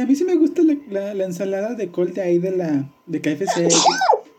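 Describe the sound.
A woman speaks steadily, then a single loud sneeze bursts out at the very end, cutting off her talk.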